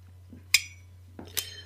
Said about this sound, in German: Die Eierharfe. Genau. Also auf einer Holzkiste klingt das dann einigermaßen. Problem ist nur, diese Eierschneiderseiten. Ich habe natürlich zuerst versucht, das wie eine Gitarre zu spielen, obwohl ich natürlich keine Gitarre spielen kann, ne?